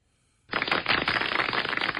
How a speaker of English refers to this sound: Do you need that hotkey for the show here? Um, you probably already have one, don't you? I, I mean, uh, I know you've got uh, clapping. You've got clapping. I know that.